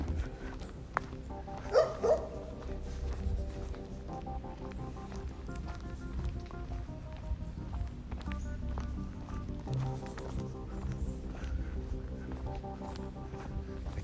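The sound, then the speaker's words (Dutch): A guard dog barks repeatedly, short harsh barks coming in uneven bursts over a steady low rumble of background noise, with no one speaking. “Een blaffende waakhond.”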